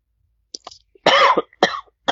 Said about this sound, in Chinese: 哦，sorry，我呃咳嗽一下，可能太激动。